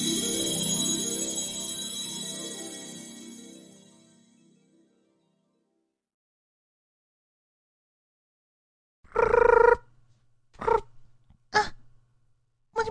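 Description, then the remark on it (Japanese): A bright, melodic phone ringtone plays loudly for a few seconds and fades away. After a long silence, a woman's voice starts speaking in short bursts. “何急に電話してきてどうしたの”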